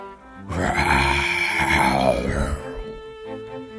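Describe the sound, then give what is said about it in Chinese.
A single loud, rough tiger roar bursts out and holds for about two seconds, a deep growling bellow with a rasping edge that fades away. No one speaks. “老虎大吼。”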